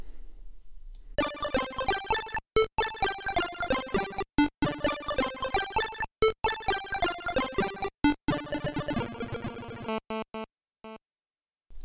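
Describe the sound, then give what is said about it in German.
Rapid synthesized arpeggios of bright, buzzy single tones, played so quickly one after another that they sound almost like one tone, racing up and down in quick pulses, with brief stops between bursts, thinning into a sparser high run before fading out. No voices. “und dann werden halt diese Einzeltöne so schnell hintereinander gespielt, dass das Gehirn das gar nicht mehr wahrnehmen kann und für das ja, menschliche Gehör klingt es dann wie ein Ton fast.”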